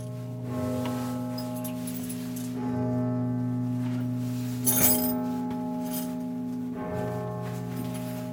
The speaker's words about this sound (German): In der Glockenstube unten schlägt es 12 Uhr Mittag. Das große 12 Uhr Läuten fällt heute aus, extra wegen uns.